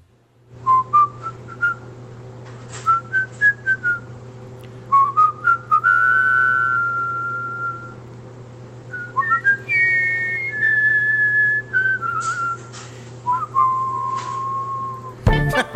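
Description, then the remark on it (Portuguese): A person whistles a bright, upbeat cartoon theme melody, with quick short notes and longer held tones, over a steady low hum, fairly loud. “Tá subiando aí é, Dragon Ball, Dragon Ball”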